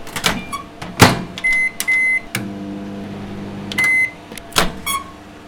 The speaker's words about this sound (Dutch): De magnetron.